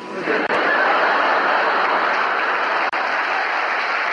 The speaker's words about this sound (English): For our last number, I'd like to ask your help. But the people in the cheaper seats, clap your hands. and the rest of you, if you just rattle your jewellery.